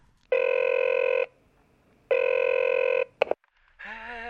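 A telephone rings twice in steady, evenly spaced electronic bursts, followed by a sharp click as the handset is picked up, then a voice begins speaking, in a dramatized phone call recalled by Chopin.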